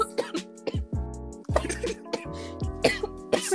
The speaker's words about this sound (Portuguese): Gente, eu tô, eu tô tossindo, mas não é Covid. É que eu me afoguei de rir aqui.